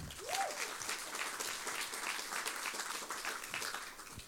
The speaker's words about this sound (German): Er wird den Text auf Russisch vorlesen. Einmal einen Applaus für ihn bitte.